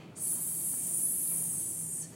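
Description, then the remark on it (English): A person imitates a snake with one long, steady hiss lasting about two seconds, a bright airy sound held at an even level with no talking. “or hiss like a snake”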